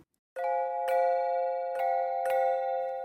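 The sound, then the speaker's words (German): Early iron bells struck four times at a steady pace, each strike a sharp clang that rings on with a dense, slightly harsh and noisy tone rather than a pure musical note. No voices. “Die Klänge dieser Glocken haben für uns mit Glocken eigentlich nichts zu tun. Das ist eher Geräusch statt Musik.”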